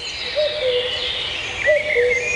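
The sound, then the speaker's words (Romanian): Forest birdsong in a virgin forest in Călimani National Park, Transylvania, Romania: a steady, high twittering chorus runs throughout, while a lower whistled call sounds twice, each a short rising-then-falling note. No voices are heard. “Păsăret.”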